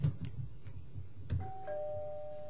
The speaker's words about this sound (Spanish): Winona estaba llegando a la casa de su amigo y tocó el timbre.